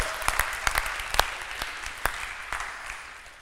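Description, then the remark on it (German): A crowd in the Michaeliskirche church claps steadily for the people from Ilmenau, dense overlapping handclaps with a few sharper claps standing out, gradually thinning and fading toward the end. “Auch an alle Ilmenauer, die heute da sind. Das ist euer Applaus.”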